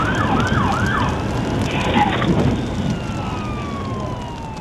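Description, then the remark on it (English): Emergency vehicle sirens wail in rising and falling sweeps over a loud, rumbling background as a fire chief drives up to the front lawn of a house engulfed in flames, with one long siren tone gliding steadily downward as it fades toward the end. “Over the howl of the sirens, you can hear him say, Oh my God.”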